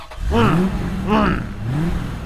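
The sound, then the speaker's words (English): A car engine strains to start in three rising-and-falling whining surges, fairly loud, each sputtering out without catching. “The, the car's not going to work, is it?”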